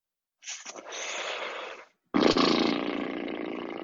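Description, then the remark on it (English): A person imitates a lion's roar with two loud, raspy growls, the second starting abruptly after a brief pause and trailing on, with no talking. “Spirit animal would have to be probably a lion mainly because I'm a Leo.”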